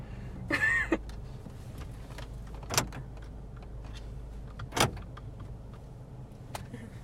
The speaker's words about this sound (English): Locking my door.